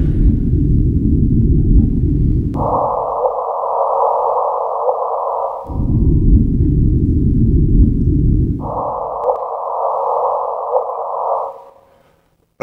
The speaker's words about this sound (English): Yes, we, we have the power of to play black holes to push a button and play the sound.